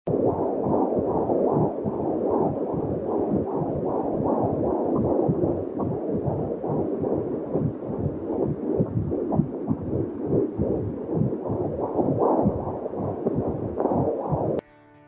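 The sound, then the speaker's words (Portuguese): A steady, muffled whooshing pulse from a downloaded MP3 recording of womb sounds as a fetus hears them inside the uterus: liquid noises and internal organ sounds, with a rhythmic heartbeat thumping under a constant low rumble, loud throughout with no voices. “É exatamente esse som que o bebê escuta quando ele ainda está dentro do útero da mãe.”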